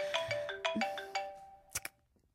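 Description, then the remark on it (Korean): A phone ringtone for an incoming call plays a quick series of bright, melodic electronic tones in a bouncy rhythm, fairly loud, followed by two short sharp clicks; no one speaks. “어 어, 전화 오네요.”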